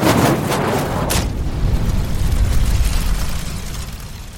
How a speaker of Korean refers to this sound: 각 진영에서 일제히 발포하였다. 대포 소리가 우레와 같이 하늘과 땅을 진동시켜서 수십 리 밖에 있는 크고 작은 산들까지 요동하였다.